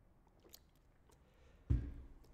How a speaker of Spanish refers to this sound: Voy a echar un traguillo al café.